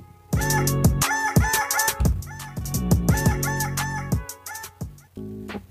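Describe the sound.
A voice imitates a rooster's crowing through heavy autotune, giving a series of loud, robotic-sounding crows with stepped, warbling pitch that run back to back for several seconds.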